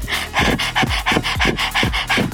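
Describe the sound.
A person pants rapidly like a dog with mouth open and tongue out, as a breathing exercise, with quick, rhythmic breathy huffs, about a dozen short in-and-out breaths with no talking.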